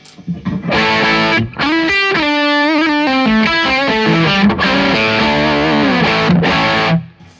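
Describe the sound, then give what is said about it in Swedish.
Electric guitar through a Schaefer overdrive pedal plays a loud, gritty melodic phrase of sustained, bending notes with a few brief pauses, ringing out alone with no voices. “Och så tillbaka till Schaefer.”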